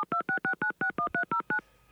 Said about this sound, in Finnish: Mulla on täällä yksi puhelinnumero ja en tiedä vastaako tai ei, mutta tempastaas tästä nyt saman tien soitto